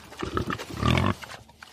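A pig grunts in a quick series of short, rough snorts, building to a louder, longer grunt near the middle before trailing off. No one speaks.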